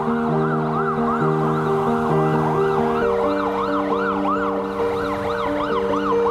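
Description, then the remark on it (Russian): Several police sirens of a convoy of several cars with armed guards wail together in overlapping, rapidly rising and falling cycles, loud, over a steady low engine hum for the whole stretch, as it drives through the city of Luhansk, with no one speaking. “Меня везли с мигалками, кортеж целый, несколько машин, автоматчики.”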